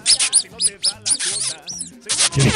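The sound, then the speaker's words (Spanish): A rat squeaks in a rapid string of shrill, sweeping chirps, about eight in quick succession, fairly loud, ending in a harsher, noisy burst. “¿Y eso qué es un ratón? Es una rata.”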